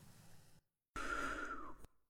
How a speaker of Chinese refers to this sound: 但是因为疲倦了。他打起哈欠来。